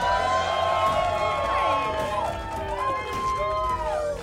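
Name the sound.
audience cheering and applause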